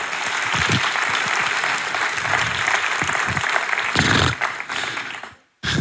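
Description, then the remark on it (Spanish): An audience claps together in sustained, dense applause for the Lord, loud and steady for several seconds before breaking off abruptly into a short silence, then resuming briefly. “Vamos a dar un amoroso aplauso al Señor.”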